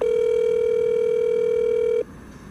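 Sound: telephone ringing tone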